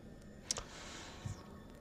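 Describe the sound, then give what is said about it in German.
A couple of soft, scattered key clacks from a cat running across a computer keyboard, faint and irregular against a quiet hiss, with no talking. “die rennt hier halt genau auf der Tastatur rum”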